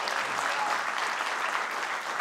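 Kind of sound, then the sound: crowd, audience applauding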